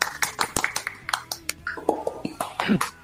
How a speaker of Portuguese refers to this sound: Palmas para ele. Pode vir aqui pro palco.